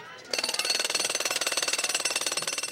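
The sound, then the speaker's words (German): A pneumatic jackhammer worked by construction workers pounds in a fast, steady rapid-fire rhythm, loud, starting abruptly after a brief quieter moment and continuing without a break. “Ich finde es laut, wenn zum Beispiel die Bauarbeiter mit dem Presslufthammer arbeiten.”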